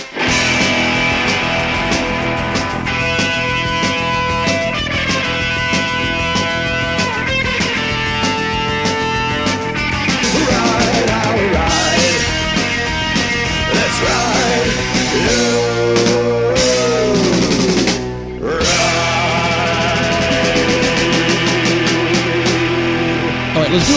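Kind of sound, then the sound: punk rock song playing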